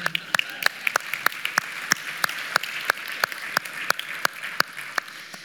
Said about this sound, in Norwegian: Ja, vi klapper for det.